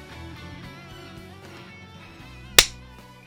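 One sharp, loud hand clap, made to sync timing, lands near the end, cutting through a steady background of low, sustained humming tones. Nobody speaks.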